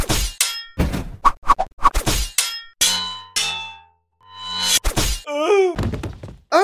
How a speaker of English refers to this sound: my gosh, you hit my friend with your sword! That is totes not okay, man! Well, we were having a sword fight.